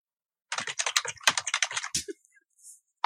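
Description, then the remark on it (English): Fast typing on a computer keyboard: a dense burst of clacking keystrokes for about a second and a half, then a few scattered taps. It's fairly loud, with no talking. “What are you booking a flight, bro?”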